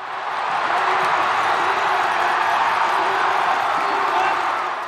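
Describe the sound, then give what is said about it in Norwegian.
A large Swedish home crowd in Falun roars and cheers steadily for the whole stretch as Charlotte Kalla finishes for bronze in the 15 km skiathlon, a dense wash of shouting and whooping that stays loud without pause. “Her går Charlotte Kalla inn til bronse på 15 km med skibytte, og det svenske hjemmepublikummet i Falun jubler som om hun skulle ha vunnet konkurransen.”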